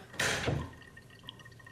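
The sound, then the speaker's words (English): A short burst of spilling water from an overflowing toilet, followed by faint, scattered drips and a low trickle. No one speaks. “the toilet's overflowing.”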